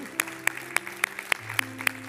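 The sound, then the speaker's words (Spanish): An audience claps in a steady, even rhythm as applause to the Lord, sharp hand claps landing on the beat over sustained background music at moderate volume, with no one speaking. “Y yo te invito ahora a un aplauso al Señor por lo que está haciendo en este lugar.”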